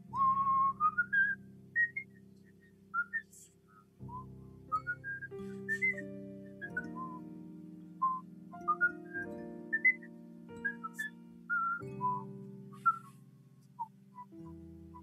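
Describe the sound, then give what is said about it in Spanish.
Someone in the distance whistles a wandering, melodic tune of short rising and falling notes, played over a soft, sustained low musical backing, with no talking throughout. “empiezan a escuchar un silbido a lo lejos.”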